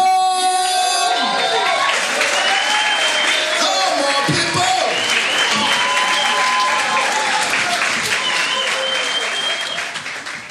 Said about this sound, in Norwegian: And uh, let's let's give him a big, big, big round of applause.